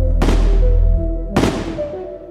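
Two loud, sharp rifle shots crack about a second apart, each leaving a short echoing tail over a steady low droning background.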